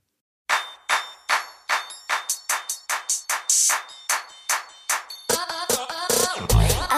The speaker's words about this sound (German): Moderne Musik, bei der es sich sehr wohl lohnt, dem Text zu lauschen. Wir hören … mit dem Song ….